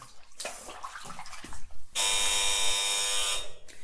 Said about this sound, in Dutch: Oh, de bel gaat. Ik ga even open doen.